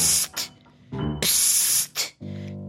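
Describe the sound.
A voice makes a drawn-out shushing hiss, psst, in several sharp, airy bursts, ending with a brief hummed vocal sound.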